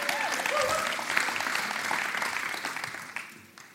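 A crowd claps steadily in a dense wash of applause, with a couple of faint whistles early on, the clapping gradually thinning out toward the end.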